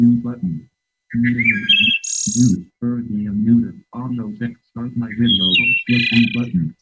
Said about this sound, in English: Here's the wood thrush, which I think is one of the maybe one of the three most beautiful bird sounds I've ever heard.